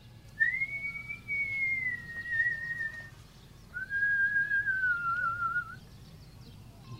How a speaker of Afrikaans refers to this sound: Hulle hoor 'n fluit wat nader kom.